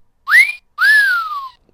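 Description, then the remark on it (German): A loud wolf whistle sound effect: a short upward sweep, a brief gap, then a second note that rises and slides down in a long falling glide. No one speaks. “Das sowieso, wenn man äh, auf der Straße lang geht und es gefällt einem jemanden. Nicht verkehrt, da muss man selber nicht pfeifen.”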